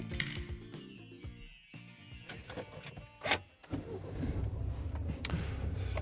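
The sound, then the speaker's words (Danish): Someone settles into a car in bright sunshine, setting off toward Kornby Mølle: mechanical clicks and ratcheting, a sharp thump, then a steady low engine rumble takes over for the last few seconds. “Jeg har netop sat mig i bilen i det smukkeste solskin”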